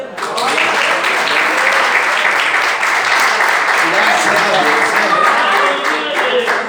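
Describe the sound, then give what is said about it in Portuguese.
Sustained crowd applause in praise of the Lord, dense and steady from start to finish, with many hands clapping at once; a few voices murmur faintly underneath the clapping. “E Deus abriu essa porta e eu agradeço a oportunidade, agradeço a porta aberta e as palmas que louvam o Senhor.”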